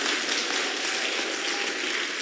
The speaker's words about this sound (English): Clap for me, clap for me so I can go home.